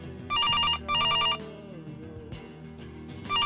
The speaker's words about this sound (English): The phone rings. I try not to notice. None of my folks answers.